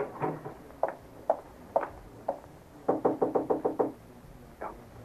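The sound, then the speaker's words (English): Knuckles rap on an apartment door: a few spaced knocks, then a quick burst of about eight, and one last knock. No voices accompany it. “I don't hear a sound in there. Knock again, honey.”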